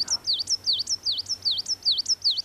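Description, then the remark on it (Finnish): A bird repeats the same high, swooping whistled phrase about six times in a steady rhythm, each note dipping down and rising again, with a faint low hum underneath. “Mutta tässäkin se, että se toistaa tota samaa säättä koko ajan, että se ei lähde tuosta polulta yhtään mihinkään, mm.”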